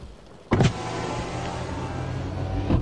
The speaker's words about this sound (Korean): 창을 열고 차 아래쪽을 살피니 타이어가 거의 물에 잠긴 수준이 되어 문틈새로 물이 서서히 새어 들어오고 있었다.